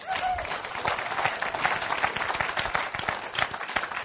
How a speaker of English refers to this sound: And uh, let's clap one more time, huh? Yeah?